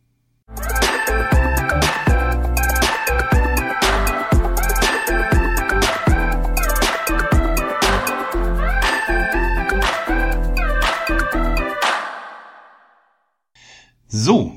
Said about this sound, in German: Bis gleich nach dem Jingle. Bis gleich.